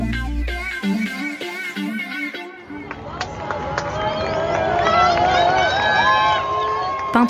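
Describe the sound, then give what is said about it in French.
A brief musical passage gives way to a large crowd in front of the hospital in Marrakech at 5 pm cheering an immense motorcade carrying King Mohammed VI, a dense, sustained roar of many voices with shrill rising cries and whistles cutting through, loud and steady to the end. “il est 17h à Marrakech et devant l'hôpital de la ville, la foule acclame un immense cortège.”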